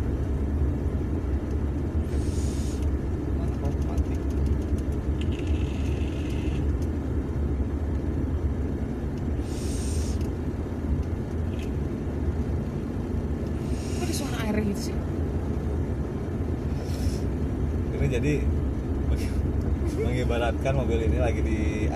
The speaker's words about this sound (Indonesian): ini tuh suara AC.